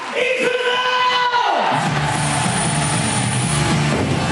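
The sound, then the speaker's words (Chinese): An audience at a kabuki performance cheers and roars loudly in a steady, dense wash of crowd noise as Nakamura and a singer rise above the stage at the show's end, taking over after a sustained tonal sound drops away in the first second and a half. “而在演出最后，中村更与…一同升至舞台上空，接受观众的热烈喝彩，让现场气氛嗨到最高点。”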